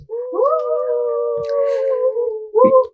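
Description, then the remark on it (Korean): Staff members cheer with a single long, drawn-out whooping cry that holds steady for a couple of seconds, then a second short whoop follows, loud with no other voices around it. “지금 여기 어, 환호하는 스탭들과 구면이시죠.”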